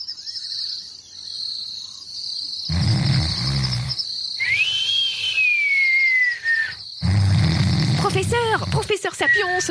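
Two deep, rumbling roars from a pride of lions in Africa rise from a steady chorus of crickets, with a long descending whistle between them and a few chirping calls near the end.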